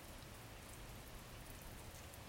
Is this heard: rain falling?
yes